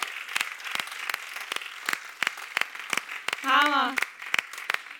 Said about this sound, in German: Hey, lass uns unserem Worship-Team einen richtigen Applaus geben, oder der Worship war sowas von stark. Woo!